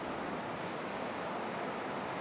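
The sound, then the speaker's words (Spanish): Heavy rain and wind from Hurricane Julia, which made landfall on the coast of Nicaragua to the north, roar steadily outside an open window at a farm in the Costa Rican tropical forest, a dense, unbroken hiss with no pauses and no voices, fairly loud throughout. “Entonces estoy grabando con la ventana abierta para oír un poquito ese evento que está sucediendo hacia el norte de nosotros y que nos, nos llega muchísima agua a raíz de eso.”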